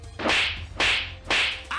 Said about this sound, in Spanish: Ahorita, Secre, te van a caer las cachetadas.